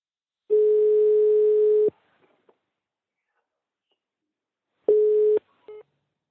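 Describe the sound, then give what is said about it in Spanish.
A steady, mid-pitched telephone dial tone after a phone call has been cut off sounds for about a second and a half, stops, then returns briefly after a pause before a short cluster of clicks and a clipped tone; no one speaks. “Es que creo que, que se ha cortado.”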